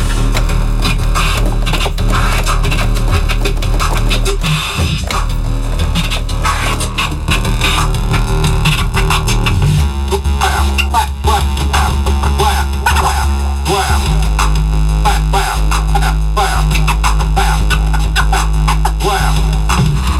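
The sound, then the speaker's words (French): A vinyl record is scratched by hand on a turntable, one hand modulating the speed and the other the volume, with rapid back-and-forth scratch strokes layered over a loud, droning bass-heavy sound that continues steadily throughout, with no talking. “Il y a un son qui est fixé sur le vinyle.”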